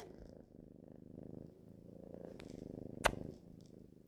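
A cat purrs steadily while sitting on a sheet of paper, a low continuous rumble pulsing in gentle rhythmic waves, with a brief sharp click or rustle near the end.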